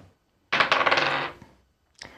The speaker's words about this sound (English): incredible dice gymnastics happening I think I trapped under something and spun on its point. Amazing. Yeah, and the other one it landed on top of behind a cable.